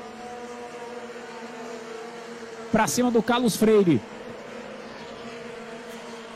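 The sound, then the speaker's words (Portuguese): Stock car engines, including an Opala, drone steadily throughout with a buzzing, constant roar during the live broadcast of Old Stock Race, Race 1 of Stage 1 in 2022, while a man's voice briefly talks over it partway through. “OLD STOCK RACE | Corrida 1 - 1ª Etapa 2022 | Ao Vivo”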